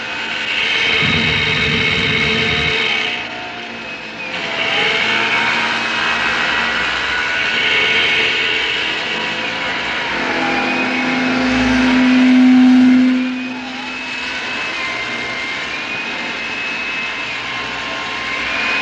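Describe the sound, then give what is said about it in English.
Power tools played as music by a band at a Raudelunas Pataphysical Revue show. Whirring, whining motors rise and fall in pitch over a steady mechanical drone, with a louder sustained buzzing note near the end and no voices. “All of the ensembles playing that night were pretty different and pretty extraordinary, but the band who brought their power tools was the ….”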